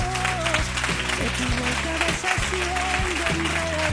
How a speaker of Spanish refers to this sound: Esto ya es otra cosa, ¿eh? Un aplauso, venga, para vosotros.